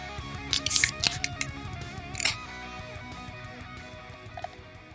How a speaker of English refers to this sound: But now, time to hear those beers crack open. Let's go.